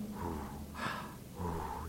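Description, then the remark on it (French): A person imitates very deep, heavy breathing: a long, raspy inhale and exhale followed by another slow, forceful breath, with no words spoken. “Et en définitive, lorsqu'on voit ces respirations très profondes, parfois après ils forment un cercle et ils se mettent à.”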